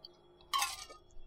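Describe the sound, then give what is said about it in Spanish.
A single gulp of a drink, a short wet swallowing sound lasting about a third of a second, loud against an otherwise quiet background with no talking. “ay, perdón, escucharon mi trago.”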